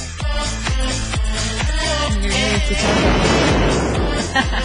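A loud explosion sound effect on the radio station La Radio del Diario 97.7 erupts partway through, a broad rumbling blast following a series of rhythmic low booming thumps, with no voices over it.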